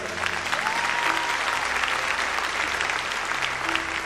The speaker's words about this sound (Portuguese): Pode aplaudir o Senhor que é santo.